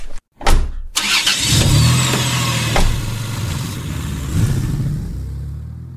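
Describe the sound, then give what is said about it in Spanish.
A car engine cranks and catches after a couple of sharp clicks, then settles into a steady low rumble that swells as the car pulls away toward Arcos de Belén and fades off. No one speaks. “Vamos, suban a mi vehículo.”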